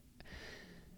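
A dog snoring softly in the background, one drawn-out raspy breath following a brief click, faint and close-miked with no one talking.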